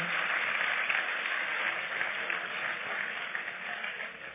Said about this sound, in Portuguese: Você aplaudiu o senhor? Aplauda o senhor logo forte.